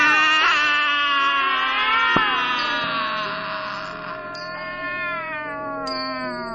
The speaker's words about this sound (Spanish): y el gato gris que vivía con él maullaba al unísono.